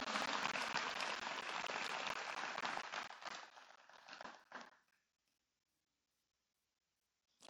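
A crowd breaks into loud, dense applause with many hands clapping at once, then it thins into scattered claps and fades to silence after about five seconds.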